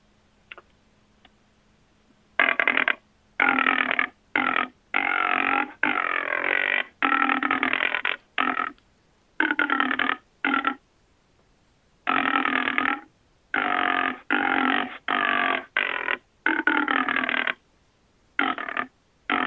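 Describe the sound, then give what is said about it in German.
A male wild boar's bubbling rutting call, made during the rut when the boar drives the sow, played back for demonstration: a long series of loud, rapid, gurgling grunt bursts in an uneven, hurried rhythm, with short pauses between them and no talking. “Aber wie gesagt, dieser Laut ist wirklich nur im Regelfall in der Rausche, wenn der Keiler die Bache treibt, zu hören.”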